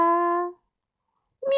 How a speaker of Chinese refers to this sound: 喵，我们猫咪也很有兴趣哟。